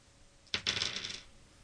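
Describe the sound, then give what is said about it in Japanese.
A sharp clatter as three dice, rolled at once to decide a train line, hit a hard surface and land on 6, 4 and 2, followed by a half-second of rapid rattling clicks as they tumble and settle, fairly loud, with no voices. “まずじゃあ、3個1回振っちゃいます。”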